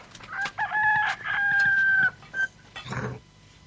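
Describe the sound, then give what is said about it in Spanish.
A hen clucks loudly, breaking into a long, drawn-out call in the middle, then a few shorter squawks trailing off. No one speaks. “¿Cuál es la de que pone la grampa? La gallina.”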